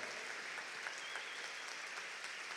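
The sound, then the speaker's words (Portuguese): A church audience applauds the name of Jesus steadily, a dense wash of many hands clapping at an even level throughout, with no voices standing out above it. “Aplauda o nome de Jesus. Bendito seja o nome do Senhor.”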